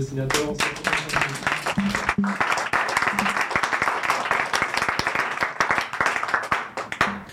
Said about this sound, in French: un tonnerre d'applaudissements pour nos